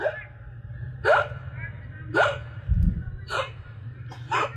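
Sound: imitated gasping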